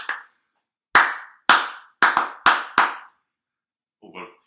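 Sharp hand claps tapping out a short rhythmic pattern as someone tries to clap the rhythm of a song, about six claps with a quick double near the middle, followed by a brief murmur of voice at the end.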